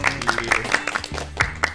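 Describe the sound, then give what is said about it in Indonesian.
Sharp hand claps ring out in an uneven run, roughly half a dozen crisp slaps, with a low humming tone sustained underneath. “Tepuk tangan dulu dong.”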